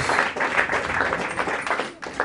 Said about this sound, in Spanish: Recibe este aplauso en el nombre de Jesús.